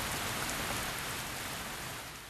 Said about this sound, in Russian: 19 апреля 2003 года вечером в городе Ханчжоу в провинции Джидзян шел проливной дождь.